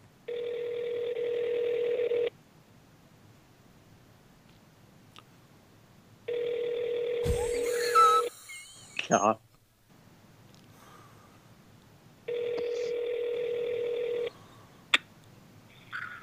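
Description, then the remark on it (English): An outgoing phone call rings on speakerphone: three steady, buzzy ringback tones, each about two seconds long with pauses between. A person briefly mutters during the second ring. “I'm gonna fucking call Felsher on the damn phone.”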